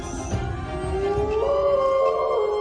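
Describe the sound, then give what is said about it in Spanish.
A single long wolf howl rises slowly in pitch and holds steady, a sustained mournful tone over a faint noisy background, with no voices. “Lobo rompió a dar maullidos y huyó al bosque.”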